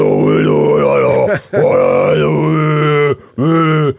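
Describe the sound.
A voice imitates death metal growling: loud, sustained guttural vocal bursts, two long roars broken by brief pauses, alone with no ordinary talk.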